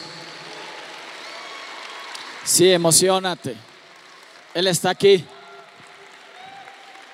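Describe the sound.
An audience stands and applauds at a religious gathering with a steady, dense wash of clapping that runs the whole time, while a man speaks loudly over it in two short bursts.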